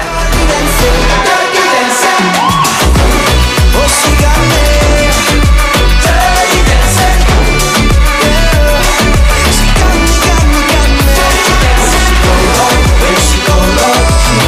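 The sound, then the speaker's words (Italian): A loud, full pop song with Arabic-flavored melodic touches, Switzerland's Eurovision Song Contest entry, plays continuously, driven by a steady punchy beat and dense layered instrumentation, with no talking over it. “E eh, sentite queste influenze arabe, se vedete il video ma che sta succedendo?”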